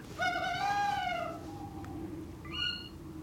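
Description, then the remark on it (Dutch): A recording of a tawny owl played from a phone: the male's low hoot, one long, drawn-out wavering note, then after a pause a shorter, slightly higher call, over a steady low rumble. “Ja, een beetje dat oeh, dat is het mannetje.”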